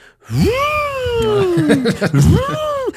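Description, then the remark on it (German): A single voice imitates storm wind howling all night through open windows of a house, a long wavering vocal moan that sweeps down and then swells up again, fairly loud, with nothing else behind it. “in Teilen des Hauses sind dann auch noch Fenster offen und wenn hier dann wirklich so ein Sturm aufzieht, dann hörst du die ganze Nacht.”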